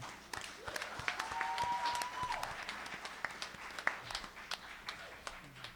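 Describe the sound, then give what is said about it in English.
A small church audience claps together as a clap offering to God during worship, in sustained, scattered applause, with a few whoops and voices rising briefly over the steady patter of hands. “If He is the Lord of your life and you want more of Him today, let's give Him a clap offering.”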